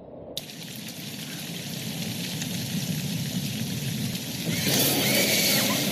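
Steady rain starts abruptly and pours continuously, a dense hiss that swells brighter and louder near the end, with no voices.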